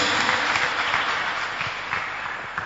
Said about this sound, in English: Clap your hands for Jesus and stand to your feet.